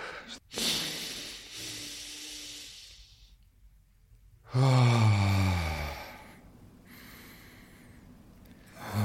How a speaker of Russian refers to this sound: Если кто-то забыл, это двойной, двойной вдох носом и медленный, медленный со звуком, расслаб, расслаблением выдох ртом и внимание в ощущениях в теле.